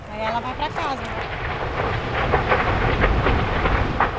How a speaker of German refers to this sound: Und das Feuer kommt. Es ist kein Unterholz, was da brennt. Es ist ein Stück dichter, noch stehender Regenwald. Die Flammen donnern, brausen und schreien, schleudern Bäume meterhoch in die Luft.